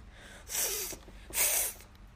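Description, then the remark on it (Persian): Two forceful, breathy snorts in close succession, fairly loud, a voice imitating the powerful, frightening call of the tiger Richard Parker, with no talking around them. “اما نه مثل سگها صدایش مثل ببرها بود نیرومند ترسناک و کاملا مناسب با موقعیت”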